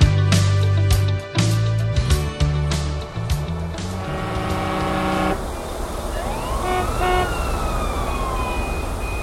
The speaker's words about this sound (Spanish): Viernes 26 de octubre, 7.30 pm, Ciudad de México. Lluvia y tráfico. Combinación fatal. Vaticinio del caos.